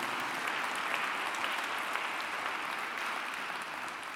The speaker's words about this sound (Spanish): Den un aplauso al Señor.